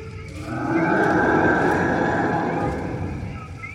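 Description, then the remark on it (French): A whistle is blown in one long, wavering blast that swells in and fades out over about three seconds, fairly loud, with no one talking. “C'est pas le moment d'utiliser ton sifflet Tu vas les attirer”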